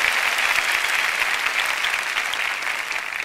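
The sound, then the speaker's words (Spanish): An audience claps in sustained applause as praise to God, a dense, steady wash of many hands that holds at a fairly loud, even level and eases off slightly at the end, with no voices heard. “If you believe that, si lo crees, give God a clap of praise.”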